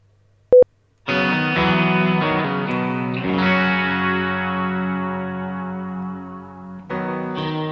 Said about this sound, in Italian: Mi piace questo brano e io, per ascoltarlo, basta fare la cosa più semplice di questo mondo, schiacciare invio.